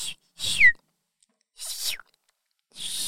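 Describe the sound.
Three short, breathy whistles from a person imitating a swallow's call. They are high and airy, and the first ends in a quick, sharp downward chirp. Brief silences separate them.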